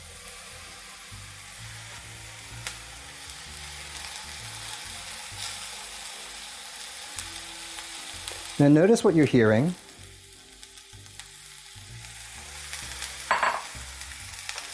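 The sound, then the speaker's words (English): Mushrooms sizzle in hot oil in a pan, a steady, mellow crackle running throughout, with a man briefly speaking partway through. “You're hearing a nice sort of mellow sizzle.”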